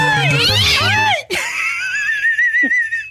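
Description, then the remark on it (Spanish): A loud cat meow from the diva's cat Satanás, drawn out and wavering in pitch, followed by a long, thin, high whining cry that trails off near the end. No one speaks. “La diva tiene un gatito que se llama Satanás.”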